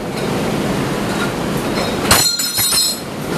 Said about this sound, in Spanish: Ahí se acaba de caer un pedazo de cortina, pudieron escuchar, con la furia de los vientos.